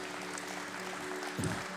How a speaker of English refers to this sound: Give the Lord a clap of praise.